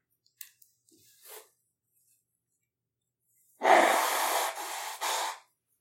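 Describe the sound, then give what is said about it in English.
Someone blows their nose, reacting to cat dander: a long, forceful honk with a brief break, then a short final push, preceded by a few faint sniffs and breaths. No talking. “I gotta quickly blow my nose.”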